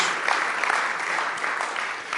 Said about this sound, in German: Und hey, das ist ein guter Moment mal zu klatschen, okay? So, so, also richtig, richtig, richtig gut.